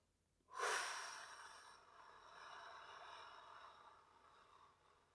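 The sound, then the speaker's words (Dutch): A long, deep breath pushed out through the mouth over a count of eight during a guided breathing exercise, a soft airy rush that starts abruptly, swells, then slowly fades over several seconds with no talking. “En acht tellen door je mond uit.”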